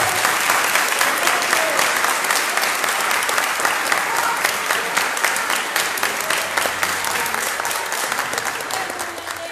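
A large church audience applauds steadily during a sermon, a dense wash of clapping that stays loud throughout and fades slightly near the end, with faint voices mixed into the crowd.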